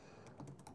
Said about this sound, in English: If you hear me typing in the background, that's just me um setting up the um, channel that I want to show people to subscribe to.